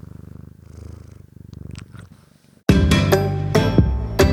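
A domestic cat that has jumped onto a desk purrs, a soft, steady rumbling pulse for about two and a half seconds before a much louder sound abruptly takes over. No one speaks.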